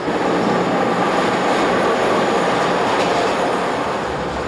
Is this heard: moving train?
yes